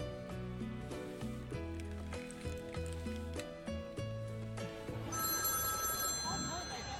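A telephone rings with a loud, repeating electronic melody for several seconds, then gives way to a noisier, hissing passage with high steady tones near the end.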